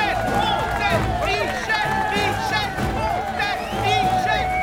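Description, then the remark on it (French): A dense, frenzied crowd, gathered from all over the country, roars continuously, with shrill whistles and overlapping shouts of a man's name rising and falling throughout, loud, like a packed gathering in an uproar. “Une foule en délire, arrivée des quatre coins du pays, siffle fait crie le nom de celui qui, au nom de l'humanité, veut prendre la place d'un boulet de canon.”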